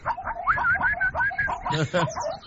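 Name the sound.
zebra call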